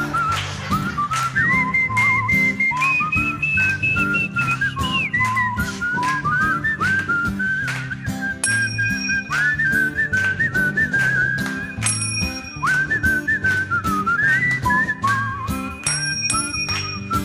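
A crowd whistles a bouncy melody in unison over a loud band with steady drums at a show behind the dike in Büsum, Germany, the whistled tune carrying clearly above the music for the whole stretch, with no talking.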